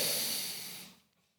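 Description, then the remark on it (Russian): A single heavy, forceful, angry breath snorted out through flared nostrils, loud, a harsh airy rush lasting under a second before fading to quiet. “Как будто, эта картина, как будто бы он выдыхает из себя вот этот жар гнева сердечно.”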